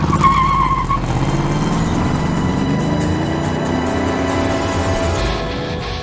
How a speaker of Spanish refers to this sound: Frenó, haciendo derrapar el coche y levantando una auténtica humareda.